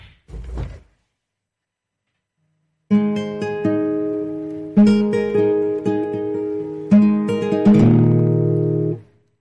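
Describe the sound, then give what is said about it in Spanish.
A brief muffled thump, a pause, then an acoustic guitar, played to mark International Music Day with added reverb, strums a slow run of sustained chords, each ringing out with a reverberant wash before the next. “tocando e interpretando la guitarra para conmemorar este Día Internacional de la Música.”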